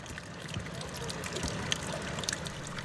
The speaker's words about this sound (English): And so when you have these icebergs clanging and clashing next to each other constantly, added to the bubbles that are popping, it becomes an acoustic refuge.